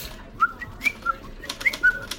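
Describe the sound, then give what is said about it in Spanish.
Quiet whistling of a short tune by a person walking back to the neighbourhood on a sunny day, a handful of clear notes hopping between a lower and a higher pitch over about two seconds, with no talking. “Yo volvía para el barrio tranqui, había hecho la diaria, solcito, contento, chiflando bajito.”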